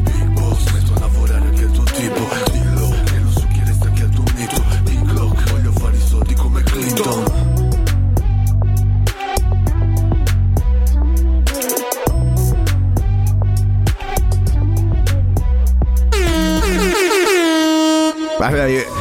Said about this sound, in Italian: La che... prima cosa che ho sentito, la prima cosa che ho detto al primo beat, ho detto mo che basso, mi aveva praticamente sfondato.